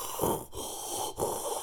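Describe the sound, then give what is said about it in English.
A voice imitates pained moaning: two breathy, wheezing groans in quick succession, fairly loud, with a brief break between them and no words. “like they're begging and just the moaning, the the painful sounds.”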